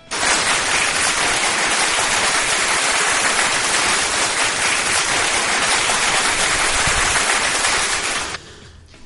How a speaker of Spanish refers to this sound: pues te sientes muy complacido y quisiera un aplauso por estos dos años.